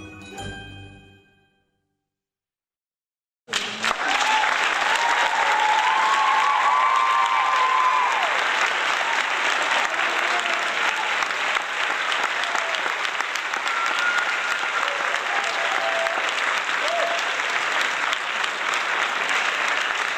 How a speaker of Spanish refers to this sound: Gracias, gracias. Hoy hubo aplauso doble. Qué bien, ¿no? Ya basta, ya, criatura, suficiente. Ya fue demasiado papacho.